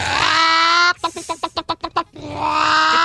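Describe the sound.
A voice imitates a hen straining as it pushes, in a joke about a hen on a farm: a long strained, squawky cry, then about seven quick rhythmic clucking grunts, then another drawn-out harsh squawk, loud and alone.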